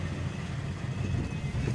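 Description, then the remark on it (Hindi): Steady low rumble of city road traffic with engine noise near Gobariya Bawdi during lockdown, a continuous wash of vehicles at moderate loudness and no talking. “lockdown चल रहा है लॉकडाउन गोबरिया बावड़ी के पास दुकानें काफ़ी सारी खुली हुई हैं शहर में ट्रैफिक दिखने लगा है”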